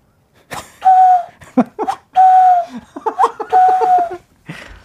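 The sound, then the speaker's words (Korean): A whistled imitation of a cuckoo call, sustained tonal notes repeated three times, mixed with bursts of laughter between and over the calls. “자, 저기서 멀리서 나타나는 뻐꾸기.”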